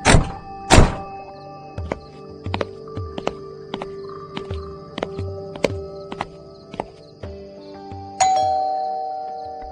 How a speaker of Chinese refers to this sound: 当仙儿敲开门时，李德彪吃了一惊。